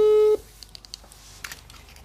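A phone call being dialed: a short steady tone cuts off, followed by a few light, quick keypad taps and faint rustling, fairly quiet, with no one speaking.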